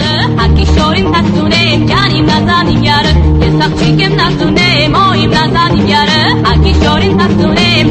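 A loud, dense rock-pop rendition of a folk song with a female vocal, a wailing electric guitar solo and sweeping orchestral backing, playing continuously at full volume with a steady driving beat.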